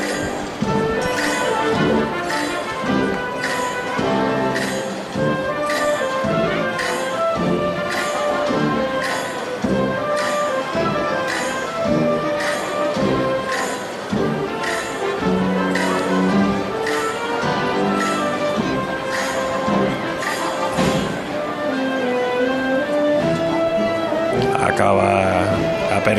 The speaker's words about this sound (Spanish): las campanitas, los platillos. Los chinchines más que platillos. Chinchines, ¿eh? Son chinchines, ¿eh? Y el paso de palio se. Se varían crótalos, ¿no? Creo que es su nombre. Sí, crótalos.